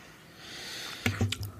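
A breathy rush of air builds, then two or three short, guttural throat-clearing bursts follow in quick succession, moderately loud, with no talking.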